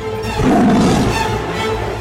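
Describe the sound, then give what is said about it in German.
A loud, snarling roar of a tiger caught in a trap, raging as it tries in vain to bend the bars of its cage, swells up and rumbles on for about two seconds, ferocious, with a harsh growling texture throughout. “Er versuchte vergeblich, die Gitterstäbe auseinanderzubiegen, und er tobte und biss vor Wut und Verzweiflung, da er es nicht schaffte, sich zu befreien.”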